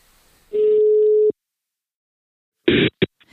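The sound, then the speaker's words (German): A single steady ringback tone of an outgoing call to a mobile phone sounds for just under a second, followed after a pause by a few short, rough clicks like a line being picked up. “Wir rufen jetzt an”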